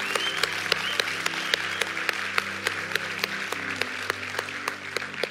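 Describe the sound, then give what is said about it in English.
An audience at a church service applauds in praise for eight people who gave their hearts to Jesus, a dense, steady wash of clapping with sharper individual claps popping out, while sustained keyboard chords hum softly underneath throughout. “Hey, can you give the Lord praise for eight people that gave their hearts to Jesus today?”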